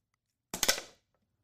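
A pen, let go after being held tightly in the hand, drops and clatters onto a hard surface, a sharp first hit followed by a few quick bouncing clicks that fade within half a second. Fairly loud, with no talking.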